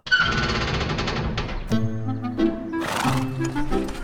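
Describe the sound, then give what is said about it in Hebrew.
A horse on a balcony whinnies loudly, a long shrill neigh that breaks into shaky, descending snorts and nickers, heard on its own with no talking. “למה יש לך סוס במרפסת?”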